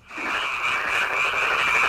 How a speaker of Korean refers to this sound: 네, 이게요. 아, 5, 6월쯤 될까요? 그러면 이제 그 밤에 개구리 소리가 이렇게 들리죠. 개구리 소리입니다. 오늘 보물 소리예요. 오늘 찾아주실 보물 소리. 이 소리를 일부에 나가는 노래 중간에 숨겨놓을 겁니다. 어떤 노래 숨겨져 있는지 여러분들을 보물 찾기 하시면 됩니다. 자, 개구리 소리 한 번 더 듣죠.